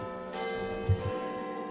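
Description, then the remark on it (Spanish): A deep clock-tower bell tolls nine o'clock, its struck note swelling and then ringing on in a long, shimmering resonance. The sound is fairly loud, with no voices. “pasáis muy cerca del Big Bang, justo cuando suenan las campanadas de las 9.”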